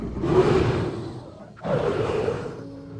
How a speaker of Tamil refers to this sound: ஆ இது என்ன சத்தம் காட்டு மிருகங்கள் ஒன்றோடொன்று இறைக்காக போட்டியிட்டு கொள்ளும் சத்தம்